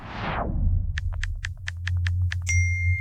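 A phone notification for a message from a lawyer: a quick series of bright, short electronic pings ticks along in an even rhythm, ending on a clear sustained chime, all over a low steady hum.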